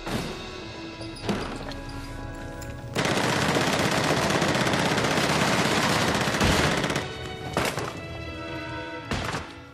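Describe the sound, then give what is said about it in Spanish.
Loud Tommy gun submachine gun fire shooting through a floor: a short burst, then a long sustained rattle of rapid shots lasting several seconds, followed by a few more brief bursts. No one speaks. “vemos las balas de las Tommy Guns acercándose hacia el espacio debajo de la cama, ¿no?”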